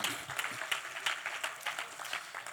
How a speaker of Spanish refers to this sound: Dele un aplauso al Señor y tome asiento.